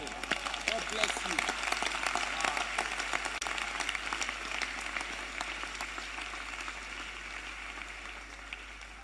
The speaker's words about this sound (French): Est-ce que tu applaudis, les enfants les, enfants, ils applaudissent.